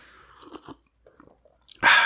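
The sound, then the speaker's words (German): A sip of water: faint wet mouth clicks, then a sudden loud slurping gulp right at the end. No one speaks. “Erstmal direkt ja, einen Schluck Wasser rein hier.”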